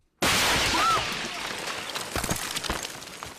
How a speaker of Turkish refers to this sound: Bir duvarın ardında çekim yaparken İsrail tankı hedef gözeterek ateş açtı. Kamera o anda kayıttaydı.